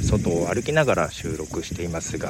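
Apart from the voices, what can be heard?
cicadas buzzing outdoors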